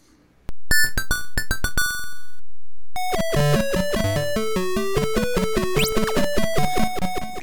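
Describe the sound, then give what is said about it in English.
8-bit arcade platform game sounds from dual Z80 hardware and dual AY-3-8910 sound chips: a quick run of bright electronic blips, a brief pause, then a busy, bouncy chiptune melody with zapping effects, loud and continuous, with no voices. “And it sounds like this.”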